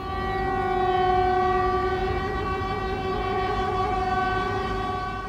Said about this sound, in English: Dover say the noise from queuing lorries is like the soundtrack to a horror movie. Residents in Aycliffe have told us drivers are constantly beeping their horns as they sit in traffic on the A20 on their way to the port. This is what it sounds like.